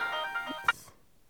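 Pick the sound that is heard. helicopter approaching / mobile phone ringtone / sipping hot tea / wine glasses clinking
mobile phone ringtone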